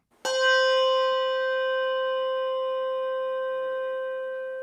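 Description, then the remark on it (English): A single Malmark handbell without a tang is struck once, giving a bright, clear tone with a sharp attack and a long, smooth ring that slowly fades, with nothing else around it. “Malmark bell, no tang.”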